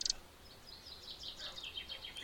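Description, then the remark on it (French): Birds chirping outdoors, a steady stream of quick, high twittering notes that sounds soft, with a brief brighter burst at the start and no voices. “pas bien là, à bouquiner avec les oiseaux.”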